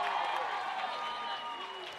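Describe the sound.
A crowd applauds steadily and loudly for the full two seconds, the clapping dense and continuous, with voices calling out and chattering mixed into the noise.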